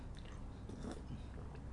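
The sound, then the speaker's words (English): A quiet sip of coffee with soft wet mouth noises and a swallow, heard alone with no talking. “Sip of coffee for you guys”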